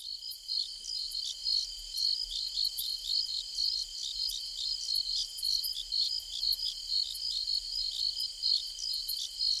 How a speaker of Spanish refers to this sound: Antes del cierre del programa, les dejo el sonido del semi, que son los insectos que nos dice que ya llegó el verano.